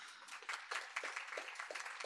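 An audience applauds to welcome a guest, many hands clapping in a dense, crackling wash with faint rhythmic accents, moderately loud and sustained throughout, with no one speaking.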